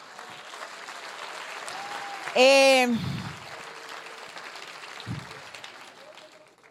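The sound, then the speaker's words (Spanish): Steady, dense applause for the Lord at a church class fills the whole recording, with a brief loud cheer rising over it near the middle and a voice speaking briefly underneath. “él es fuerte el aplauso al Señor.”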